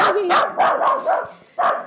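Two dogs scuffle and bark in the next room in quick, overlapping bursts, with yips and snarling growls in a fast, uneven rhythm, fairly loud, broken by a brief pause before another outburst.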